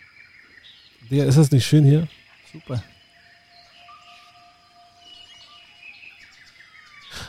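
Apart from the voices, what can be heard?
birds chirping outdoors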